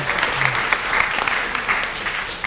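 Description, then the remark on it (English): A crowd breaks into steady, dense applause, many hands clapping together in a loud, continuous patter that holds evenly throughout without any voices standing out. “You should be applauding that.”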